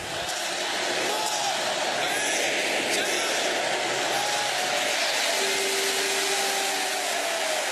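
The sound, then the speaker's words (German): A dense, steady roar of busy street traffic at Times Square in New York fills the whole stretch at constant loudness, with faint tonal whines drifting through and indistinct voices blended into the background. “Und den Rest des Jahres tobt auf der Straße der Verkehr und, na klar, die Sirenen, sie klingen wie New York eben klingt.”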